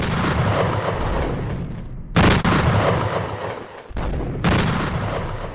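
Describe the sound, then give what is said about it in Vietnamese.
A massive blast of a 90-tonne mine charge detonated at Ông Tượng hill, Hòa Bình, Vietnam, on the Đà River in November 1979 to start building the Hòa Bình hydropower plant: a dense, thunderous rumble across the whole clip broken by two abrupt, louder bursts, as if heard in successive cuts. No voices. “Đúng 10 giờ sáng ngày 6 tháng 11 năm 1979, tại khu vực đồi ông Tượng, khối mìn 90 tấn được kích nổ.”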